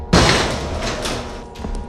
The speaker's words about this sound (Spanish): De improviso, la puerta que tenían delante de ellos se abrió.